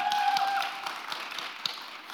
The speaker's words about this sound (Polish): Raz jeszcze wielkie brawa, nasza autorka. Dziękuję bardzo.